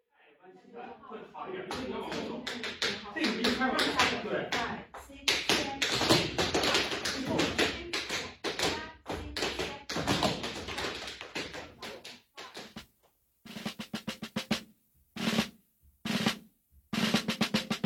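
Rapid tap dance footwork from a 1959 record made by a tap dancer with a group of jazz musicians clatters over a jazz band, crisp rhythmic heel and toe strikes; near the end the music drops away and isolated bursts of tapping ring out alone between silences.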